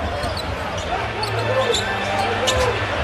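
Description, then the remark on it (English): An arena crowd at a Washington Wizards game cheers loudly after Spencer Dinwiddie's three-pointer from the top of the key ties the game, a dense, steady roar holding at a constant level for the full three seconds, with scattered higher shouts and whistles rising out of it. “I mean, just listen to that crowd.”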